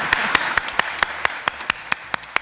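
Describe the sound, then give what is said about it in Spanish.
Applause: a steady run of sharp, bright claps, roughly five per second, rising above a dense, moderate wash of clapping with no voices on top. “un fuerte aplauso, porque de verdad, sin estas personas la radio no existiría.”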